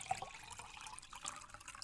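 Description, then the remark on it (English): Someone takes a quick sip of water from a water bottle, with soft sloshing and slurping liquid sounds. Quiet, with no talking. “How about we all take a collective sip of our water from our water bottles and we can stay hydrated this summer and live our best life?”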